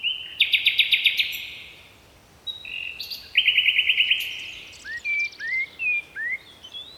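Birdsong rings out clearly with no talking: rapid trilled phrases, a pause, another buzzy trill, then a run of short rising whistled notes, fairly close against a quiet background.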